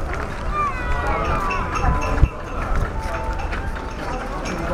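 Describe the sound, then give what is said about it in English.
Horse hooves clip-clopping in a steady rhythm over a busy outdoor background, with one sharper knock partway through and people talking. “horse, I think.”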